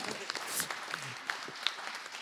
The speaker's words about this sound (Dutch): Nou, heel hartelijk applaus voor Stijn Sips van het CDA.